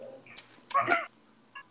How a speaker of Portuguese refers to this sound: Ai, meu Deus, eu vou espirrar.